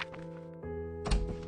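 A hospital ward door opens, marked by a single dull, low thunk about two-thirds of the way in, set against a steady tonal background drone with no talking.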